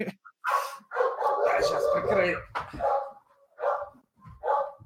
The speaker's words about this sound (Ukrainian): Що ж у вас у всіх собак? У нас, а? У нас випуск гавкаючих собак.